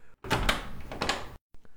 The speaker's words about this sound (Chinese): 在你刚刚打开门的时候，你便注意到门前放着一层厚厚的棉被和保暖的衣物。